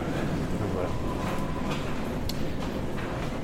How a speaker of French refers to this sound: Toujours dans le métro, là, il y de légumes, de fruits. Je vais sortir par la porte dans quelques instants.